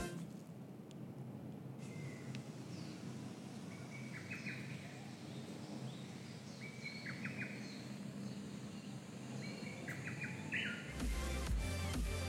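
A lesser cuckoo calls faintly, recorded over a weekend, its short staccato phrase repeating about three times over a steady outdoor hiss, with no one speaking. A louder noise comes in at the end.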